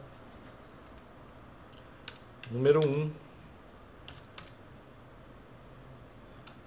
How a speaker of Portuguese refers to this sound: Então vamos lá, vou puxando aqui, vou digitando, por causa do microfone não vai acontecer isso.